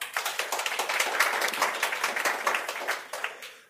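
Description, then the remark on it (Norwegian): A crowd applauds steadily, welcoming a panel at a discussion on the Norwegian offshore wind industry, many hands clapping in a dense, fast patter that holds at an even level for a few seconds before trailing off. “Vi koster på oss en applaus.”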